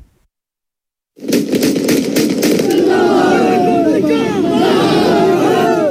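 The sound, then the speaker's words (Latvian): A large crowd of Taliban in Afghanistan marks the end of the American occupation, shouting slogans such as "Death to America" loudly after a moment of silence. Rapid bursts of celebratory gunfire crackle through the opening seconds before the roaring voices carry on. “Ar šādiem skaļiem saukļiem, salūtu un ārvalstu spēku pamestās tehnikas demonstrējumiem Afganistānā valdošie talibi atzīmējuši pēc viņu vārdiem amerikāņu okupācijas beigas.”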